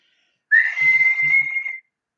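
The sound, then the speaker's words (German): A single long, shrill whistle blast of about one and a quarter seconds, steady, piercing and loud, from an electronically amplified referee whistle heard over the referees' radio network, with no one talking. “Also sie hat natürlich eine, eine elektronisch verstärkte Pfeife, die über den Schiedsrichterfunknetzwerk zu hören ist und pfeift da jetzt rein.”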